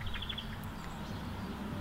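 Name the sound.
young birds chirping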